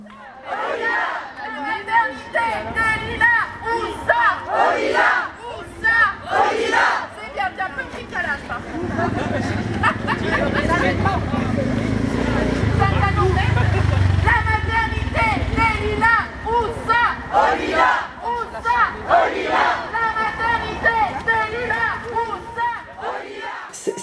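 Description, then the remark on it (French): A large outdoor crowd at a protest rally to save a maternity hospital shouts and cheers in rhythmic bursts, voices swelling together like chanting, with a steady roar of many people throughout. “On remettra en fin d'épisode des sons du rassemblement.”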